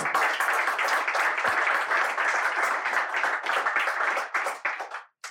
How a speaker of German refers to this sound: Applaus für die Aufrechterhaltung.